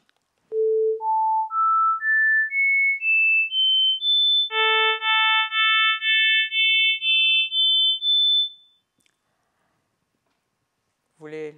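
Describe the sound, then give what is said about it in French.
A steady series of short electronic beeps in a pitch-perception demonstration: pure single tones stepping upward in pitch, then richer harmonic tones whose lowest harmonics drop away one by one, the fundamental missing from the second one on. A voice briefly begins at the end. “Alors, d'abord la suite des sons monofréquentiels, puis les sons harmoniques, avec au fur et à mesure perte des harmoniques les plus basses.”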